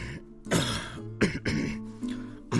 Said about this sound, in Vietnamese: Anh chợt cảm thấy phổi mình ngứa ngáy và sổ ra một tràng ho khan như muốn đẩy hết lũ khuẩn lao to lình khình đang cố ngoe nguẩy trườn ra ngoài qua cuống họng.